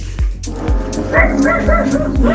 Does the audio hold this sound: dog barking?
yes